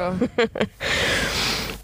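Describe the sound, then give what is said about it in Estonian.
A person yawns: a few short voiced, groaning sounds give way to a long, airy, breathy exhale that trails off at the end. “oh my god, ma haigutan samamoodi nagu see ähm, tüdruk, kes pani need haigutavad emoji'd sinna lõppu”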